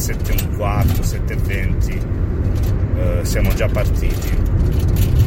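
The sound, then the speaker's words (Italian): Steady road rumble inside a car moving along the Basentana road toward Policoro, near the Matera exit in Italy, at 8:10 in the morning, with a loose metal ladder rattling and clattering continuously while a man speaks briefly over the noise. “Allora, questo è il rumore del, della scala che ho portato ma non è servito un cazzo eh, mi ha dato solo fastidio.”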